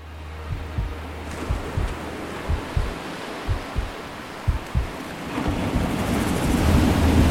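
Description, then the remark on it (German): A steady roar of surf with strong wind gusting across the microphone, producing irregular low thumps; the rushing noise swells louder over the last couple of seconds. No voices. “Obwohl die Brandung nicht weit war und der Wind heftig blies, konnte man sich hier leichter verständigen.”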